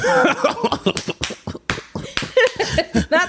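Sharp hand claps in quick, uneven succession, fairly loud, mixed with a voice vocalizing over them.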